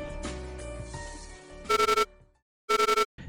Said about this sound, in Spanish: El reloj despertador sonó varias veces hasta que Roberto lo apagó y aún adormilado vio la hora.